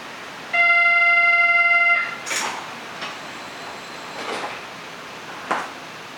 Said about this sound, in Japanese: ドアが閉まります。閉まるドアにご注意ください。